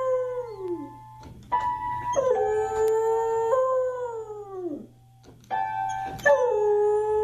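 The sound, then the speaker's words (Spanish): A dog called Buddy Mercury, from New York, howls in long, sliding wails while playing a few piano notes himself, the howls rising and falling as the keys change, fairly loud with no talking. “Dicen que, que aullan porque les lastima el sonido, ¿verdad?”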